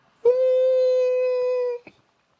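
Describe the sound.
A voice imitates a shrill left-ear tinnitus ring, holding one steady high-pitched tone for about a second and a half before cutting off abruptly with a short click.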